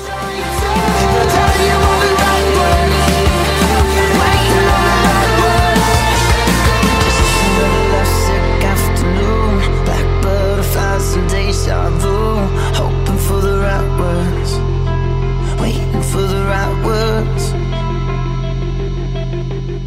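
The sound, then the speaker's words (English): A dense, sustained, swirling synth texture with warbling, shifting tones and a deep held bass ends a song, holding steady before easing slightly softer as it fades out, with no voices. “The song ends with that swirling synth sound and kind yeah.”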